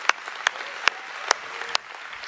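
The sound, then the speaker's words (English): An audience applauds in a steady, hissing wash of clapping. A few sharp, louder individual claps stand out at irregular moments, about five across the couple of seconds. “Let's give them a hand.”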